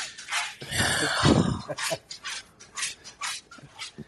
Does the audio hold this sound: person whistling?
no